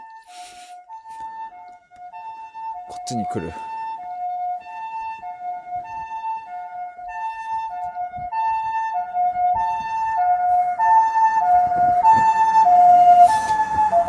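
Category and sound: vehicle, ambulance siren passing outside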